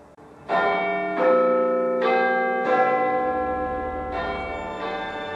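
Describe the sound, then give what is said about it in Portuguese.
The Big Ben bell, a 13,760-kilogram bell in the Elizabeth Tower in the United Kingdom, in use since 1859, chimes in a steady melodic sequence, several resonant strikes overlapping and ringing out loudly, each tone sustaining and decaying into the next. “Desde 31 de dezembro de 1923, a rádio BBC transmite todos os dias as badaladas do Big Ben”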